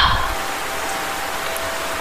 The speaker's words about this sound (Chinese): 又下雨了，我讨厌下雨，可我必须出一趟门儿。